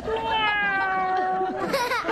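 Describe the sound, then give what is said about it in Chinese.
A person imitates a cat's ordinary meow, not its mating call: one long, drawn-out, nasal mew holding a steady, slightly falling pitch, then a brief higher, breathy upturn at the end. “你说说， 你看猫正常叫法吧哈， 啊 是单身的哈 啊 叫法就是”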